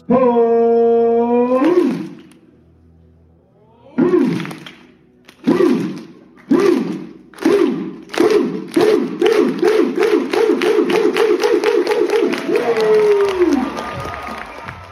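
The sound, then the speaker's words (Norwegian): A crowd at a teambuilding-like event lets out a long, loud whoop, then chants in rhythmic shouts over loud music with pounding beats that steadily speed up, ending in a drawn-out, falling cheer. “Det ropes i kor, og det er hoiing og jubling, og det er høy musikk.”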